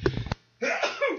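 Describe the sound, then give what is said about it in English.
A short, sharp sneeze bursts out, followed after a brief pause by a noisy, voiced exhale like a second sneeze or a cough. “Well, bless you.”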